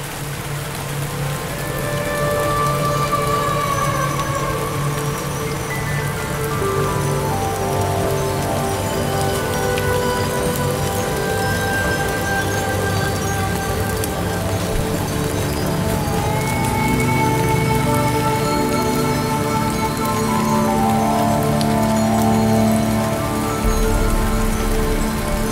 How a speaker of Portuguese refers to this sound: Chove.